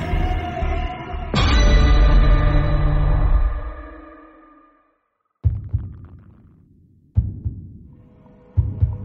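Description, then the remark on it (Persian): A heavy heartbeat sound effect: deep thudding double beats repeat roughly every second and a half, after a loud booming swell that slowly fades into a brief silence. No one speaks. “مسرور زیر پارچه همچنان گریه می کرد و صدای تپش قلبش را بیش از پیش می شنید متعجب گفت من زندم قلبم میزنه”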